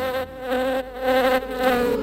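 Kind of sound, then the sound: insect, wasp buzzing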